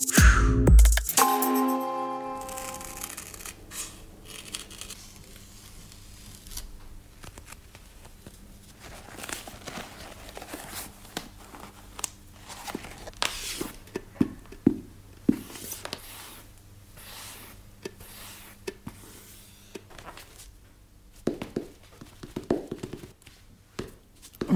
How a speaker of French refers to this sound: entend ici votre corps, vos mouvements, votre respiration bientôt, en très gros plan. C'est un ASMR que vous avez euh, réalisé avec votre, votre époux.